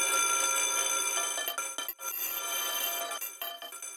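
A loud electric bell rings continuously and shrilly for several seconds, with only brief momentary dips, heard on its own without any talking.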